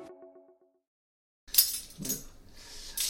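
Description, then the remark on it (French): A short tonal note fades out, then after a pause metal cutlery clinks and clatters in several bright, irregular bursts, fairly loud and with no one talking. “Ok, ça c'est bon, les couverts.”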